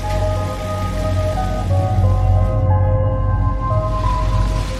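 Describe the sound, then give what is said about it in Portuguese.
A giant grinder machine runs steadily outside a house throughout, a loud, continuous mechanical roar with a whining hum on top and a gritty, rushing rumble underneath. “Que barulho é esse? É um triturador gigante.”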